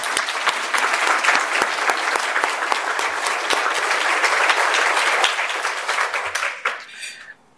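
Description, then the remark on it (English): A crowd applauds the team of library staff, many hands clapping in a dense, crackling wash that holds for several seconds before quickly dying away at the end. “I ask you to please join me in giving a round of applause for our team.”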